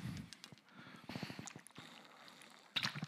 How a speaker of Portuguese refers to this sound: Só pegar minha garrafinha de água ali.